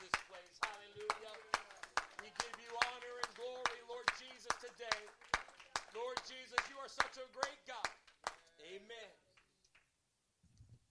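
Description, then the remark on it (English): A church audience claps hands in praise to the Lord as they are being seated, in a steady, quick rhythm for about eight seconds while voices call out and sing over the claps, then the clapping stops and a lone voice trails off. “Can we clap our hands one more time as we're seated unto the Lord?”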